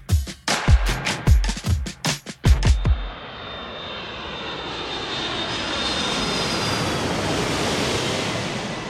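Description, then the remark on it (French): A jet engine spools up into a steady, rising roar with a thin high whine, like a plane accelerating for takeoff on a flight to Brazil, following a few sharp knocks in the opening seconds. “J'étais vraiment très heureux de, de monter dans l'avion, j'avais beaucoup d'adrénaline et euh, je pensais déjà euh, à mes vacances, à ce que je vais faire, aux gens que j'allais découvrir, aux paysages.”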